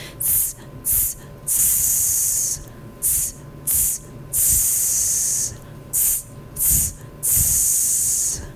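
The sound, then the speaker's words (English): A voice breathes out sharp hissing "sss" sounds from the diaphragm in a breathing exercise, in a steady pattern of two short bursts followed by one long one, repeated three times, fairly loud, with no talking. “You're going to exhale with short S's, two short ones and one long one.”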